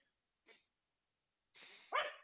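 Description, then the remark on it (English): A dog gives a brief soft huff, then after a pause lets out a louder, breathy bark, heard on its own with no talking and slightly muffled. “Oh, somebody had a dog. Somebody's dog has a question.”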